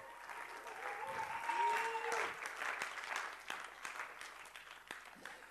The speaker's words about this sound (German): Und das ist unser Kinderexpress. Geben wir doch einen großen Applaus für unsere Kinderexpress-Leiterin